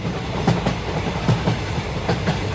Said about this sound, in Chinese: 我们搭着火车来到了台东